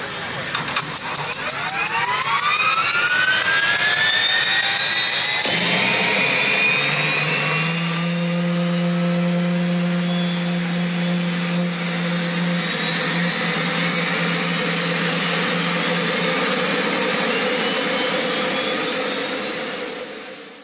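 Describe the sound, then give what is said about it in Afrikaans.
A turbine engine of a turbine-powered motorcycle with a two-speed gearbox spools up with a rising high-pitched whine that climbs steadily, then settles into a loud sustained roar with a steady low hum and piercing upper tones, running continuously. “Het ons nou begin by die skooter, toe praat ons van 'n rotary en nou hierdie een met 'n turbine in.”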